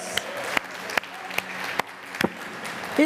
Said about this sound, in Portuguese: Aleluia! Podemos dar um aplauso ao Senhor da história. Glória a Deus!